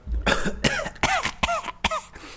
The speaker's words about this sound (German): habe mich verschluckt am Bier.